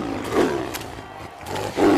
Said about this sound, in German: Ein riesiger Tiger. Ach, wie schön und majestätisch. Wisst ihr, dass die vom Aussterben bedroht sind?